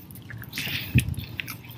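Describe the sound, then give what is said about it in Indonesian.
A crisp bite into a crunchy nori-wrapped snack filled with seaweed and small fish roe, followed by a few brittle crackling chews of the seaweed sheet, with no talking. “Itu untuk menjaga supaya uh, nori atau kulit apa ini namanya kulit dari rumput laut ini tetap crispy. Nih, buktiin. Hmm, tetap crispy kan? Bunyi dari lembaran rumput lautnya itu terus gitu loh hmm.”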